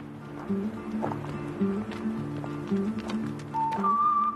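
Hooves clip-clop steadily on the ground as a donkey walks at an even pace on a donkey-riding tour, with a low tonal hum and a brief higher whine near the end.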